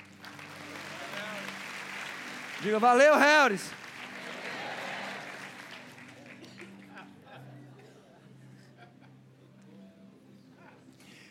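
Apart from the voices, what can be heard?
audience applause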